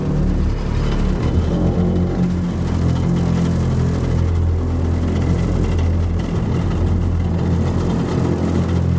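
A small motorboat engine runs steadily, a loud, continuous low droning hum with a throbbing rumble that holds the same pitch throughout, with no voices.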